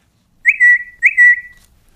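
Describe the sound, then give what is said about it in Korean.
Two identical cat-calling whistles in quick succession, used to call a cat. Each is a sharp rising chirp sliding into a steady held tone. Clear and fairly loud, with no talking around them. “이게 뭐냐면 캣콜 하는 소리입니다.”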